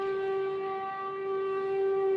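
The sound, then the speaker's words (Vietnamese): An air raid siren in Hanoi, Vietnam, warning of approaching enemy aircraft, wails steadily and continuously on one sustained pitch, loud and unbroken for the whole stretch, with no voices. “Lẫn trong tiếng còi báo động phòng không là tiếng loa phát thanh khắp nơi.”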